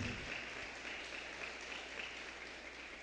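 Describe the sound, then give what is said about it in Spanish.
An audience applauding the Lord during a sermon, a dense, even wash of many hands clapping at once with no voices standing out, holding at a constant level for the whole stretch. “Le palmas fuertemente al Señor.”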